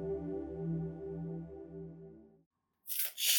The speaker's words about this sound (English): shuffling my my card deck, I in my my morning meditations for myself, I always pull a couple of cards